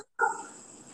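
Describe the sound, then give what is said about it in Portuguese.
A single dog bark rings out after a moment of silence, fairly faint, trailing off into a fading reverberant tail with no voices. “Então, tem algum canto aí que tem cachorro latindo.”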